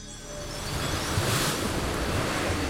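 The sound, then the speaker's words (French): Steady rush of ocean waves and blustery trade wind at sea as three sailing ships advance at a good pace, a broad continuous wash that swells slightly louder partway through, with no voices. “Poussé par le vent alisé, ces trois navires, la Niña, la Pinta et la Santa Maria, avancent à bonne allure.”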